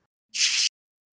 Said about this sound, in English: If you have a can, I want to hear it opening.